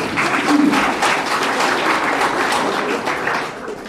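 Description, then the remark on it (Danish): An audience at an open mic night at Comedy Zoo claps steadily for several seconds, those there for the first time clapping, a dense, crackling patter of many hands that stays loud throughout and tapers slightly at the end. “Prøv at klappe, hvis det er første gang, jeg til open mic.”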